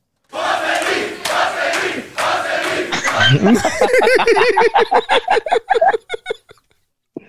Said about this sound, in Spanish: A ver, escuchemos, a, eh, escuchemos, a ver, escuchemos al, al público aquí de, del DJ Show.